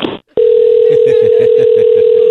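A brief burst of voice cuts off, then after a short pause a loud, steady telephone dial tone hums continuously to the end, with faint murmuring underneath.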